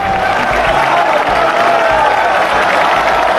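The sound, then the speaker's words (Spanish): A dense crowd of thousands cheers and applauds continuously at the Puerta del Príncipe of the Seville bullring as matador Morante de la Puebla is carried out, a loud, sustained roar of many voices with steady clapping and shouts filling an open outdoor space. “Vamos a escuchar el sonido ambiente de la puerta del príncipe de José Antonio Morante de la Puebla en Sevilla.”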